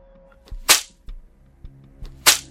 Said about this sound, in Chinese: 细细的鞭声在空气中产生尖锐的响声。